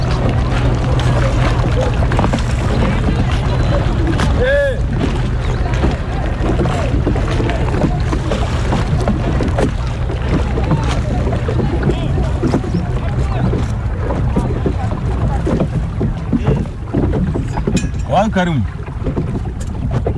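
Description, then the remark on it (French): A motorboat's steady engine drone runs throughout as a pinasse riverboat carries people on the Niger River at Mopti in the dry season, with water washing past the hull and wind buffeting the microphone; voices murmur briefly in the background. “Et justement, on va prendre une pinasse, on va aller faire un tour sur le fleuve.”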